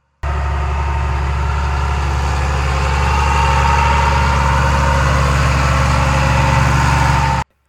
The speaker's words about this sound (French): Quand tu montes, au fur et à mesure, ma rue, et là, tu aperçois deux fermes agricoles, une à droite et une à gauche. On entend beaucoup de tracteurs passer dans la, ma rue.